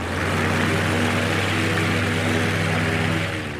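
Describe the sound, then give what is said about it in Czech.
A light aircraft's propeller engine drones loudly and steadily as aircraft take off at Hosín airfield, Czech Republic, a buzzing, harmonic roar holding at full power for a few seconds as if on its takeoff run, with no voices. “a odstartujeme stejně tak, jako startují letadla na Hosíně.”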